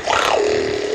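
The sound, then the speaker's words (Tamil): A single voice imitates a tiger roaring outside a cave where a lion sleeps: a short, loud growling roar rising in pitch, then settling into a steady, drawn-out rumble for about a second. “நல்லா ஊர் உரு உருன்னு சத்தம் போட ஆரம்பிச்சது புலி எப்படி உருமிச்சு அப்படி”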